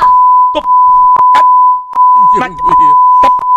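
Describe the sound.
A steady high censor bleep tone runs almost continuously, broken by brief gaps, over fragments of a woman's speaking voice, like a rant with every word bleeped out.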